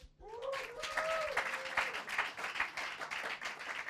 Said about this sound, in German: Wow, das klang ja fast nach einem Applaus. Könnt ihr das? Könnt ihr mal alle klatschen?